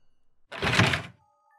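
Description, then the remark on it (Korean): A single hollow wooden thunk with a brief scraping rumble as a wooden gymnastics vaulting box is lifted and shifted, moderately loud, then quiet. “난 뜀틀을 들어 올렸다.”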